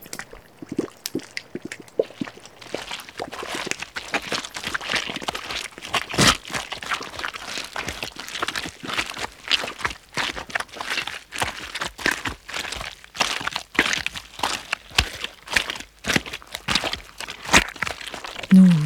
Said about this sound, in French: oh, de la boue, épaisse et collante. On ne peut pas passer dessus. On ne peut pas passer dessous. Allons-y. Il n'y a plus qu'à s'y enliser.